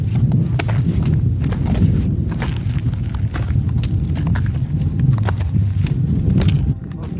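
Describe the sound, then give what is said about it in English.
Steel crampon spikes strapped onto boots crunch on thick, hard ice in a slow, uneven series of sharp, crisp bites, one per carefully placed step while edging down over snow and ice, over a steady low rumble that runs underneath throughout. “Our spikes making a satisfying crunch as each foot is carefully placed.”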